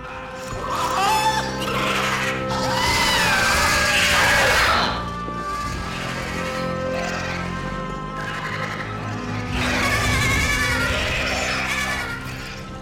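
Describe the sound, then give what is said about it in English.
Loud, wavering goat screams ring out, one long cry followed later by another, with a rough, strained, almost human quality and no talking. “And then you hear one of the most blood curdling, heart wrenching screams at the end of that when they realize.”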